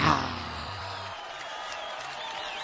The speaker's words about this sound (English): Yeah. No, no, no. They're all clapping because you're trash.